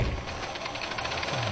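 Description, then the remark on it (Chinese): A teacher's film projector whirs and clatters steadily, with a fast, even mechanical ticking over a constant hum. It runs alone at moderate volume, with no voices. “这是你的脚步声， 是放映机”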